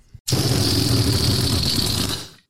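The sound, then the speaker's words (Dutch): A balloon deflating in one continuous buzzy, sputtering rasp lasting about two seconds, loud, with a steady high hiss, tapering off at the end. No one speaks. “Ja, dat, waren dus, eh, dat was dus een leeglopende ballon die we hoorden.”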